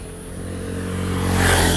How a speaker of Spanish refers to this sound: y hay interferencia, claramente, justo cuando pasa la moto.